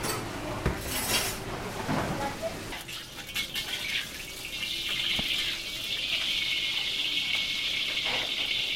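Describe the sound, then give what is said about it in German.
Minced pork for the dish minchi sizzles in a pan in the kitchen of a pensioners' club in Macau. A steady hiss swells and holds after a few opening clinks and clatters of kitchen utensils. “In der Küche brutzelt gehacktes Schweinefleisch.”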